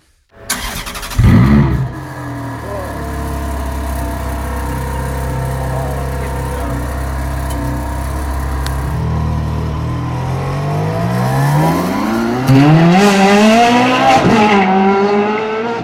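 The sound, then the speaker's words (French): A Ferrari Formula 1 race car engine fires up with a sharp burst, settles into a steady high-pitched idle, then revs up and down in rising, screaming sweeps, loud, with no one talking. “Si vous aimez la Scuderia, ce doux bruit a quelque chose d'hypnotique.”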